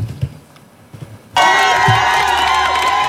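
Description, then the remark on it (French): A crowd bursts into loud, sustained cheering and whooping for the man who is the world's first buyer of Apple's virtual reality headset, after a second of quiet low murmur, the roar staying strong and dense with high shouts to the end. “Si cet homme est autant acclamé, c'est parce qu'il est le premier acheteur au monde du casque de réalité virtuelle d'Apple.”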